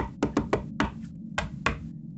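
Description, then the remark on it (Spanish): Six sharp, hard knocks on the glass and doors of a house by a hooded man trying to break in: a quick run of three, then three more spaced out, each loud and crisp against a quiet background with no voices. “Después de golpear el vidrio mucho rato y las puertas”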